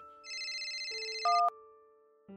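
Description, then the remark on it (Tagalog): A mobile phone ringtone plays loudly and alone as a father calls again and again, a bright repeating warble with a rapid pulsing rhythm, then shifts to a couple of sustained tones before cutting off. “Itong si Papa tawag ng tawag eh.”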